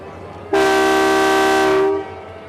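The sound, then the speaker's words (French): A single long, loud train whistle blasts for about a second and a half with a steady harmonic tone, then cuts off sharply, leaving faint background rumble. The train is on the Dakar–Bamako railway line, leaving toward Bamako. “C'est à ce moment-là qu'un coup de sifflet qui semblait fondre de l'horizon sur la ville déchira le silence.”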